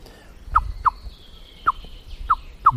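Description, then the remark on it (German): A blackbird gives five sharp, clipped alarm calls at uneven intervals as a cat moves about, each a short bright note standing out clearly over a quiet outdoor background with no talking. “Es wird schneller, der Alarm. Der Alarm wird schneller, mhm. er wird häufiger, weil die Katze geht.”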